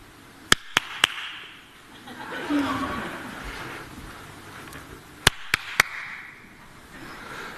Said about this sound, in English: now, we're going to do a little demonstration, right? You have to close your eyes and you have to point where you hear me clapping, all right?